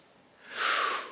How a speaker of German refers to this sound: dass dieser Name Gottes das Atmen, das Geräusch des Atmens ist, das J, war, es ist kein Name, es ist vielmehr das Atmen.